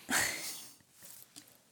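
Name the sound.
dog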